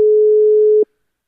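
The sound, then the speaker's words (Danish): A single steady telephone ringback tone while calling a health spokesperson's phone at 8 o'clock, a clean mid-pitched beep lasting just under a second before cutting off into silence, heard alone and fairly loud. “Tager han den, tager han den ikke? Det er det store spørgsmål.”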